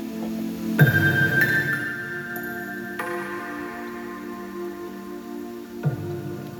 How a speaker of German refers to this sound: Ja, man hört hier so Wassergeplätscher, das höre ich bei dem Echo eher nicht, das geht da eher in den Tiefen ein bisschen unter.